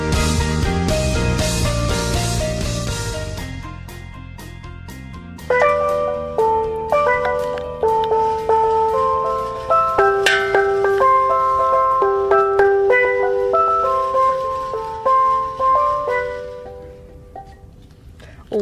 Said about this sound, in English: Those beautiful sounds you just heard were from Daniel playing a steel drum that we have here. So, Daniel, describe this steel drum.